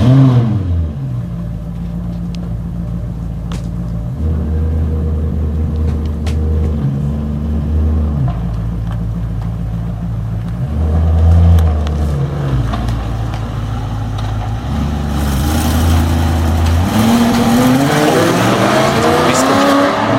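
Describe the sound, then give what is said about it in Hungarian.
A deep, rumbling old-school V8 engine of a current-generation Maserati Quattroporte revs repeatedly, its pitch climbing and dropping through several throttle blips, loud, with a rising rev near the end. “Ez ilyen régi vágású V8. A kugár is forog ekkorát. Maserati Quattroporte.”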